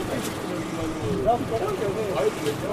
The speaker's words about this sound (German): So, wir fahren tatsächlich Bus. Ich habe einen Sitzplatz bekommen. Ganz, ganz vorne, da wo es so windig ist. Ich hoffe, dass man es nicht hört am Mikro.